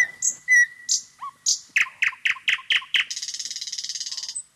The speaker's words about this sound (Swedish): man hör ju på den här unga nattegalen, han sjunger inte så bra, men han vill så gärna, han vill så gärna dra till sig jäntorna.